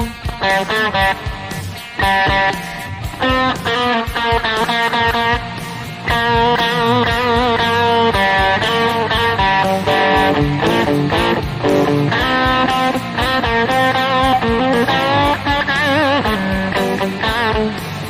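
A loud, continuous full-band recording dominated by electric slide guitar, its notes gliding and bending smoothly between pitches, with steady accompaniment underneath and no talking.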